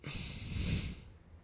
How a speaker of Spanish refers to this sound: Hacer una respiración también de energía, donde podamos inhalar y